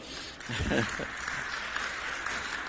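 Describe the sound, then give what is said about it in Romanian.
An audience claps steadily for a few seconds, a dense, even patter of applause, with a brief voice murmuring early on beneath it, applauding a woman who has just read a Bible passage aloud. “Mulțumesc, Ionela. Haideți să o aplaudăm.”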